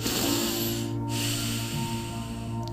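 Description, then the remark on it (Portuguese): A steady, drawn-out inhale through the nose, fairly loud, with a soft airy hiss lasting nearly three seconds and no talking, part of a breathing exercise with equal times for inhaling, holding and exhaling. “sempre pelo nariz e o mesmo tempo que vai para dentro, que a gente inspira, é o mesmo tempo que a gente sustém e é o mesmo tempo que a gente expira e que volta a esperar, a esperar antes de voltar a inspirar.”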